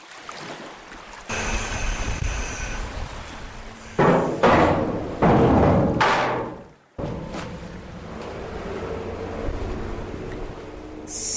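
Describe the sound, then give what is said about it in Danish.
A ferry's engine rumbles steadily with wind and lapping water, punctuated by a few loud bumps and scrapes as it comes alongside the pier at Venø, then a brief break before the idling drone continues. “Så lagde faven til på Venø, og jeg kan nu komme tilbage til Struer.”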